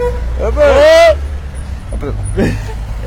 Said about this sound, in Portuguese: Eu gosto disso, né? Eu gosto de buzina. É, não, mas é nosso amigo.